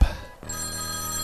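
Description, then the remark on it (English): A brief thump, then an old-style landline telephone starts ringing with a steady, buzzy electronic tone that holds loud until the end. No one speaks. “This is hooked up to like an old style like landline thing, so there's all this buzzing stuff in it.”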